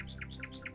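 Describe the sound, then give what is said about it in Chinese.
A nightingale sings a quick run of bright, high chirping notes, about four rising-and-falling whistles in under a second, over a steady low hum; the song is growing louder. “夜莺的歌声越来越响了。”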